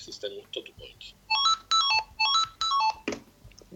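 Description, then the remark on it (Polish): After faint tapping, as the screen is tapped twice, and brief background talk, an electronic tag gives a short alert tone: a repeated melodic pattern of four bright, chirpy bursts in quick succession, clear. “W momencie, kiedy mam ten tekst, jeżeli puknę dwa razy w ekran, no to mi się ten znacznik odezwie. A ten akurat ma taki dźwięk”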